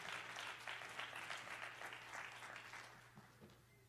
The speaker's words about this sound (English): So, as Pastor comes to the pulpit, I'm going to ask you to clap your hands one more time and just talk to Jesus.